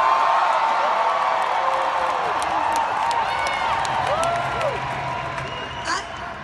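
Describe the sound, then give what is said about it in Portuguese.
A rally crowd roars with sustained cheering, whoops and scattered clapping as a speaker at the rally mentions Alexandria Ocasio-Cortez in a speech about the Green New Deal, a dense wash of voices that stays loud throughout and slowly eases toward the end. “No discurso, ela falou bastante do Green New Deal, Teve um momento em que ela citou Alexandria Ocasio-Cortez, a deputada que é a cara do Green New Deal, e a multidão foi ao delírio.”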